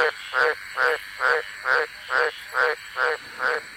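A male Australian green tree frog gives its breeding-season call, croaking in a steady, evenly spaced series, about eight harsh, raspy calls, each roughly a quarter-second long, clear with no talking.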